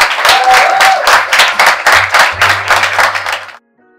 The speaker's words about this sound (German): Vielen Dank, das war eine sehr coole Sache hier. Ein Applaus für euch, Leute!